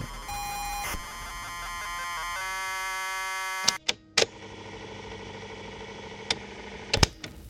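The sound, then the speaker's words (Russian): A ZX Spectrum computer loading a program from an ordinary cassette tape: steady buzzing tones shift pitch, then give way to a harsh, rapidly warbling data screech punctuated by sharp clicks, loud, with no voices. “Началось все с ZX Spectrum, который работал, загружая в себя программы с обычной магнитофонной лентой, издавая при этом интересные звуки.”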